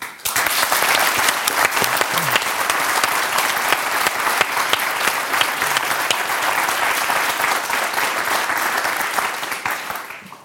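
An audience claps steadily for about ten seconds, a dense, even wash of many hands that holds at a constant loudness before quickly tapering off at the end.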